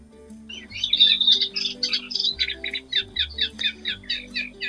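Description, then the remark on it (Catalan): Eurasian reed warbler song: a busy run of scratchy, chattering notes around the mid-high range, first tangled and dense, then settling into a steady series of repeated churring phrases, with a low hum underneath. “BOSCARLA DE CANYAR”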